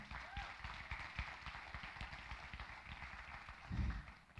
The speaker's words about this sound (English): Give her a clap again.